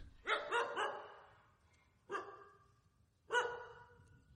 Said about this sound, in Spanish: Al amanecer, el perro de la casa parece haber olvidado que anoche había un invitado, por lo que al salir de mi tienda a las seis de la mañana ha empezado a ladrar.